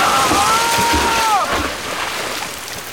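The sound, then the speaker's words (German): Loud, rushing water and wind fill the scene as a gust tips a small sailboat onto its side on a river near Boca de Tortuga and someone plunges in with a heavy splash and is pulled under, followed by churning, sloshing water and a thin whistling tone. “Ein Windstoß warf das Boot auf die Seite. Ich stürzte ins Wasser und wurde nach unten gezogen.”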